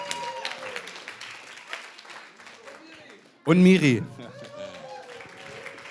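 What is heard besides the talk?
audience applause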